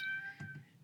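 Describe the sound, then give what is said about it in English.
A cat gives a single short, high meow in the background, fairly soft and brief, with no talking around it. “That's my cat.”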